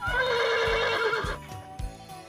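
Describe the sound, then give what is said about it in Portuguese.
A loud horse whinny rings out for over a second, then fades, while low hoof-like thumps knock in a steady rhythm beneath it. “Logo que entrou, viu seu cavalo de madeira que tanto gostava.”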